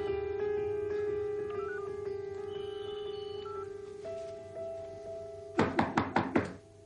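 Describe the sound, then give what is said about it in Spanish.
A mobile phone call rings steadily inside a hotel room over low room hum, then a man in the corridor knocks on the room door with five quick, firm, loud knocks near the end. “Se detiene frente a la puerta y llama.”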